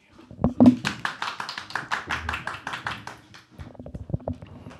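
A short burst of applause, many hands clapping in a dense, crackling patter that builds quickly, holds for a few seconds, then thins out into scattered claps.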